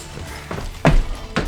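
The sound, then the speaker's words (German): A bottle of cleaning agent falls from a man's hand in a shop and hits the floor: a soft knock, then a louder clattering impact and one more bump shortly after, with no voices. “Ihm ist die Flasche mit dem Reinigungsmittel aus der Hand gefallen.”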